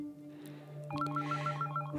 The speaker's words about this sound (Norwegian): og så eh, ringer telefonen min. Eh, hustelefonen ringer, og jeg eh, hører at eh, mamma tar telefonen